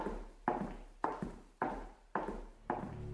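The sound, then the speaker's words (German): Someone tramples with heavy footsteps that thud at a steady, slow pace, about six loud, resonant stomping impacts roughly half a second apart, with no talking. “Psst, wie die Schritte. Da trampelt jemand.”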